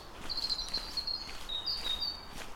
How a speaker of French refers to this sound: Et quelques oiseaux